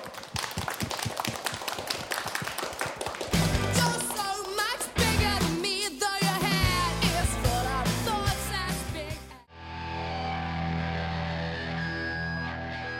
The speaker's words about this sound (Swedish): Då kör vi igång! Applåd!